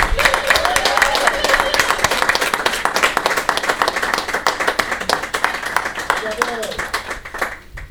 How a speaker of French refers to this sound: Tu, veux qu'on l'applaudisse plus que ça?